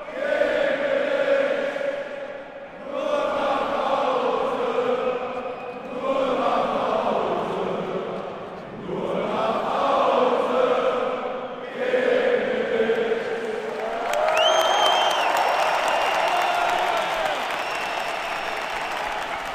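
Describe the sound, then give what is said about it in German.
A stadium crowd roars continuously, rising and falling in loud waves of cheering and chanting, with sustained tonal swells from the mass of voices and a sharper burst of noise near the end. “Also es ist einfach nur so Stadionatmos.”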